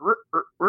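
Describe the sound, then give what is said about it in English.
A voice imitates a steak knife sawing through wood: three short, raspy, buzzing strokes in a quick back-and-forth rhythm, fairly loud, with brief gaps between them. “that's the sound of it almost sounds like sawing at wood with a steak knife”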